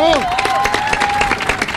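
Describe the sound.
Audience applause, a dense steady patter of many hands clapping throughout, with a sustained voice-like tone or cheer riding over the first part.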